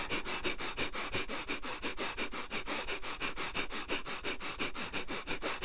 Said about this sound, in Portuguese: Continue respirando. Esta respiração conduz as mais altas frequências para suas células.